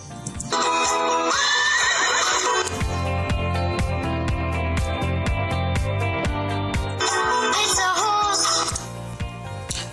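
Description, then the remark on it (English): A horse neighs loudly twice, a long wavering whinny near the start and another near the end, over a steady rhythmic clopping beat that runs throughout. “What's your favorite animal? It's a horse.”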